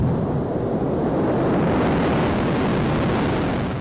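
A loud, steady roar fills the whole recording, like a rocket engine firing during a launch attempt, heard on an old, slightly muffled tape, with no voices.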